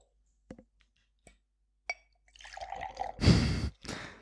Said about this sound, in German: Das hört sich an wie Bier eher, so ein Glas. Weil es Bier ist.